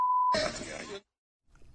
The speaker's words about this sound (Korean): 뭐 삐소리가 많아서 무슨 말인지 잘 들리지는 않습니다만 대충 아마 감은 좀 오셨을 것 같아요.